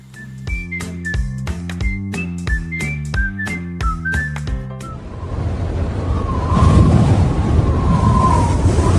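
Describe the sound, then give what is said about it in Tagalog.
A short rhythmic, whistly jingle with a steady beat gives way to a strong, roaring rush of wind as a typhoon approaches, swelling louder with faint howling tones, continuing without any talk. “Naku, ang lakas na ng hangin. Paparating na ata talaga ang bagyo.”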